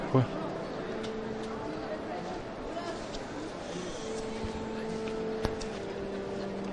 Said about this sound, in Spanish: Se escucha el rachear de, los costaleros que portan el Santísimo Cristo yacente. Mucho silencio en este esta carrera oficial al paso del Santísimo Cristo yacente.